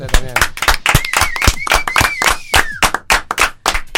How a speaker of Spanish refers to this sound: Así que esto, aplausos para ustedes, muchachos.